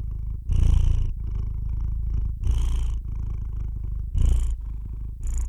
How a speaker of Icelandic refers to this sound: Heimiliskettir, þeir mala samfelt það er að segja, það er ekki hægt að greina neina breytingu þegar dýrið andar að sér eða frá sér